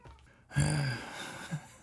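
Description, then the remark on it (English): A shop cat lets out a drawn-out, nasal meow, followed a moment later by a shorter, softer chirp. Nobody is talking. “Shop cats are mouthy.”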